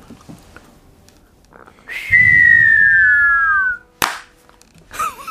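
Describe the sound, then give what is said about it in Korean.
A person whistles a long, high tone that slowly slides downward, imitating a firework, followed by a sharp burst-like pop and a brief crackly flourish. “그, 저, 불꽃놀이 하는 네. 거.”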